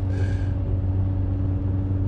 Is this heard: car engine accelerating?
yes